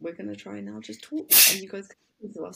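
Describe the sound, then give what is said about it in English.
A single sharp, loud sneeze bursts out in the middle of casual conversation, briefly cutting through a person's speech before talking resumes. “Bless you, babe. Bless you.”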